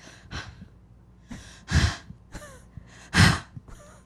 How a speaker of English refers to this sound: She's just breathing into the mic.